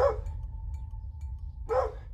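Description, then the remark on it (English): A cadaver detection dog barks twice, sharp, the barks spaced well apart, alerting its handler to a patch of thick vegetation at the side of a road, with a light dusting of snow on the ground; a faint steady tone and a low rumbling hum in the background. “His tail stiff and his barks piercing the air as he alerted his handler to a patch of thick vegetation on the side of the road.”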